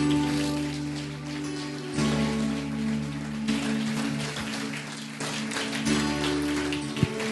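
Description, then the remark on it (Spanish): A church audience applauds the Lord Jesus Christ in a dense, steady patter of many hands clapping for several seconds, with low sustained musical tones humming beneath and no voices. “Un aplauso al Señor Jesucristo.”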